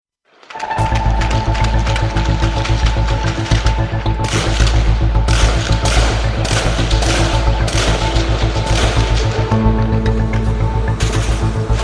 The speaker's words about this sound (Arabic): خمس ساعات متواصلة لم تتوقف فيها الاشتباكات بالرشاشات والقذائف الثقيلة في منطقة الطيونة في بيروت والتي تفصل بين منطقة الشياح ذات الأغلبية الشيعية ومنطقة عين الرماني ذات الأغلبية المسيحية موقعة سبعة قتلى وعشرات الجرحى